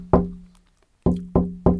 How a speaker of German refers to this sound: Ich muss dreimal auf Holz klopfen? Okay, das ist einfach. Ich klopfe auf die Werkbank.